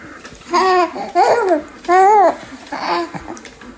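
A baby babbles in four short bursts of sing-song, rising and falling coos, fairly loud, with a slight giggly edge and no adult talking.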